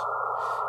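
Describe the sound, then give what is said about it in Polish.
A steady sine-wave test tone from a tone generator app holds at one even pitch and constant loudness for under a second, with no other sounds and no voices. “troszkę na tym znać, żeby wiedzieć, jak ustawić, bo to tak jakby polega na tym, że odpowiednie częstotliwości to jest szum, a no tak, tak jakby jedna częstotliwość, że spektrum częstotliwości to jest szum, a jedna częstotliwość to jest właśnie sinus.”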